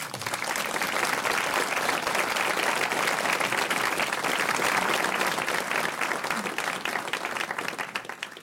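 Sustained applause from an audience for an author, a dense wash of many hands clapping at a steady, fairly loud level for several seconds without letting up.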